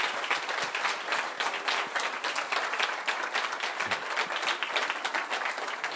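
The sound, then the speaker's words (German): An audience applauds steadily for the full six seconds to honour two people who received an official teaching licence, a dense, even wash of many hands clapping at a constant level with no voices standing out. “Können wir das einfach mal honorieren. Applaus”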